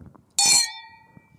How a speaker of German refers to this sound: Wollen wir nicht anstoßen? Doch.